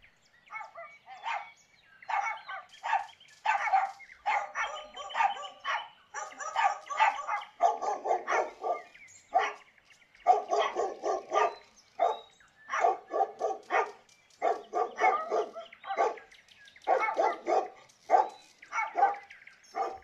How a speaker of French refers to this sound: Ça, c'est le bruit que font nos huit chiens depuis euh, le début du confinement. Voilà, c'est des aboiements qui ne s'arrêtent pratiquement jamais, euh, étant donné qu'ils sont huit, euh, dorment rarement au même moment. C'est un bruit assez agaçant.